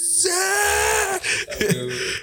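A loud, sustained shout from one person, excited when a camera they had taken apart finally worked and focused, held for about a second at a high, strained pitch, then breaking off into a few shorter vocal bursts and noisy sounds.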